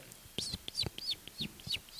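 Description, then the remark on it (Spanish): A person imitates a seagull-like bird call, giving about six quick, high, arching squawks in a steady rhythm, fairly loud, with soft clicking sounds between them. “Rollo gaviota, ¿eh? No, bueno, algo, del estilo, sí.”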